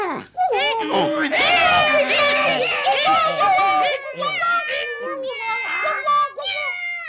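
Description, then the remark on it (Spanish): Voices imitate a donkey, dog, cat and rooster all calling at once, a loud, continuous, wavering jumble of braying, barking, meowing and crowing lasting several seconds. “Y todos se pusieron a cantar.”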